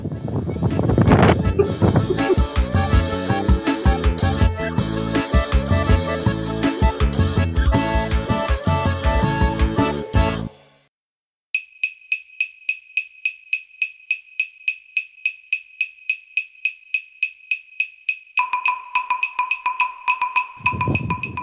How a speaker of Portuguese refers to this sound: Pô, peraí que eu tive Pô, uma ideia de arrumar o ventilador aqui.